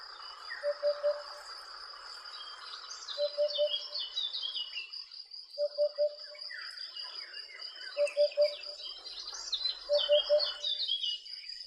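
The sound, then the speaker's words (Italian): A Eurasian hoopoe calls a soft, hollow triple hoot, 'oop-oop-oop', repeated five times at steady intervals, over a constant background of insect buzzing and other birdsong. “Esattamente, eh, insomma, sto ocra con queste ali bianche e nere, una cresta che si alza e un verso, perché il nome Upupa è proprio onomatopeutico, se riuscite a, farlo, a mandarlo.”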